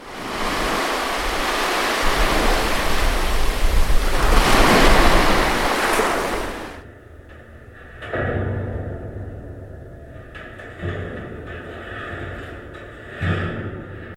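Ocean waves crash loudly onto the shore in a sustained roar, then recede, followed by smaller, softer surges washing in at intervals with no voices present.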